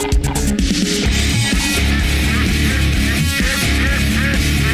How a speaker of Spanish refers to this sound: ¿Dónde sale tanto pato aquí, No sé, pero tengo, ya tengo casi para ir a cazar porque me encantaría comer pato un día.